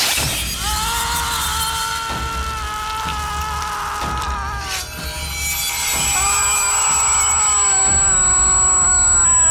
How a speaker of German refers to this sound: Ein Sinuston, der an einen Tinnitusklang erinnert. Sound und Musik lassen den Zuschauer die Materialität der Tatwaffe körperlich spüren.